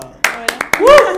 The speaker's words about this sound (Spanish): Aplausos, aplausos.